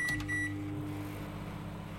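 A microwave oven hums steadily, with a couple of short electronic beeps near the start before the low drone carries on alone.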